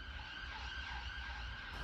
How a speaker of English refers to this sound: And that is a siren because we're on the roof of Parliament again.